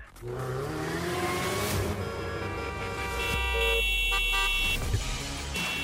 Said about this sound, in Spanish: El claxon en tu auto es solo para una emergencia, no para faltar al respeto a los demás.